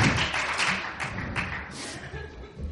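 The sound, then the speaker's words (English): An audience applauds a group of performers after their show, a dense wash of many hands clapping at once with a few sharper claps standing out, the sound staying steady and full for the whole clip. “Give them a hand clap.”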